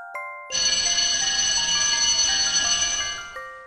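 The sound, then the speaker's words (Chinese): A school bell chimes electronically at the end of class: a brief ding, then a loud, steady, bright ringing tone lasting about three seconds before it cuts off. No one speaks. “叮咚，我就像箭一样射出，差点撞到田老师。”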